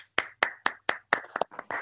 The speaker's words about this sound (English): please give him a very warm applause.